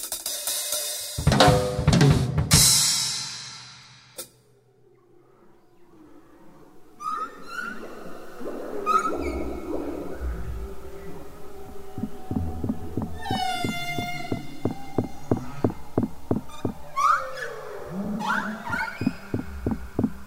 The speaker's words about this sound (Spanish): canto de las ballenas jorobadas, los cetáceos con un repertorio más diverso, fue grabado bajo el hielo de la Antártida. Un repertorio que evoluciona con el tiempo, que se repite como un mantra. Son los machos quienes cantan, en época de celo,